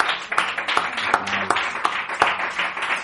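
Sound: people clapping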